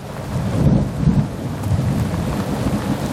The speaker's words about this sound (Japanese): ということでね、今週も1曲目いきましょう。雨のね、また音が入った曲できます。